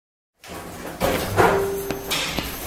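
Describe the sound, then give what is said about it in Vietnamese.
A stuck door rattles and bangs as a child forces it, with several irregular thuds and knocks over a second or two and no one speaking. “Làm cái gì mà ầm ý thế hở con? Mẹ ơi, cửa bị kẹt rồi, mẹ sửa cho con với.”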